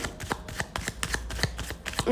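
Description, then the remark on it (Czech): Tarot cards being shuffled during a tarot reading about a future partner: a quick, fairly steady series of about a dozen crisp papery slaps and flicks, moderately loud, with no voices. “A já už se dívám na vaši fotku, míchám u toho karty a my se nejdřív podíváme časově.”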